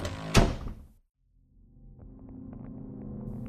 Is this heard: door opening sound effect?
yes